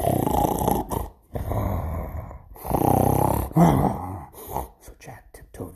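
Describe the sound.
A voice imitates a sleeping giant's snoring with loud, drawn-out rasping snores in repeated rhythmic breaths, forceful, each snort rumbling low with brief pauses between.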